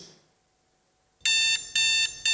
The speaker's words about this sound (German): der Wecker. Ich weiß, also meine tönt ein bisschen schöner daheim so.